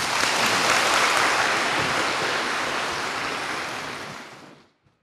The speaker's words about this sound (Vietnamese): đào hữu hỏi về cái biết cũng là một câu hỏi rất là trí tuệ thì rất là tán thán nha cho tràng pháo tay